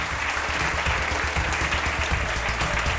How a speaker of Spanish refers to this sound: Así que viene bien que le reciban con un aplauso.